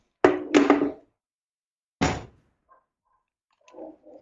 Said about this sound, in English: i'm going to close this window so the dog doesn't bark